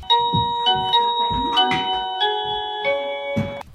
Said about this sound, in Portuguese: Mas o pior é quando você é recebido por uma campainha, um sensor de movimento.